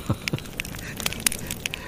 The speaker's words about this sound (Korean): 아, 이렇게 이 불펴놓고. 모닥불 피워놓고. 마주 앉아서. 이 모닥불 소리예요.